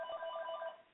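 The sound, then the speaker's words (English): A telephone rings steadily with a bright, warbling electronic tone, sustained for the whole moment before trailing off slightly at the end, heard alone with no talking. “So excuse the phone in the background, but um, anyway,”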